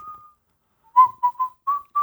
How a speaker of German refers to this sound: …, du pfeifst doch normalerweise nicht.